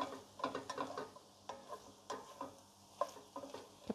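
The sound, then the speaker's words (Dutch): Aubergine and onion frying in a pan are stirred, with repeated scraping and clinking strokes over a steady soft sizzle, irregular in rhythm and moderately loud, with no voices. “En dat roeren we ook weer even door.”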